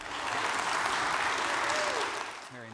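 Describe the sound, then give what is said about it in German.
A church audience claps steadily in sustained, dense applause at an even level, then it fades as a voice starts speaking right at the end. “Ein Applaus.”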